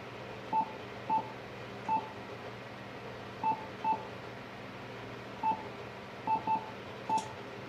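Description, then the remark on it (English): Short electronic keypad beeps, about nine of them at an irregular typing pace, some in quick pairs, as a frequency is entered on an HF radio rig to tune up on 40 meters, over a steady low radio hum with no talking. “So I'm going to first go over here to my HF rig and I'm going to enter that frequency.”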